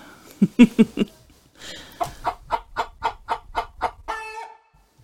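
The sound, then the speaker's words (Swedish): A mother hen clucks in a quick run of short, rhythmic calls, pausing briefly before a longer steady series, ending with a drawn-out, nasal cackle. “Där hörde vi mamma höna.”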